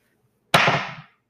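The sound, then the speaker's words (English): Dice hit a hard surface with a sudden, loud clatter after a moment of silence, rattling for about half a second before quickly dying away. “you've got the dice. You want to roll first?”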